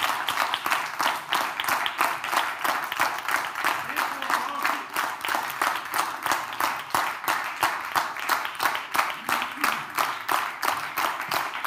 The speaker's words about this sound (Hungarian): és akkor azt szeretném kérni a közönségtől, hogy egy nagy tapsal a teljes távot jutalmazzák még zárásként.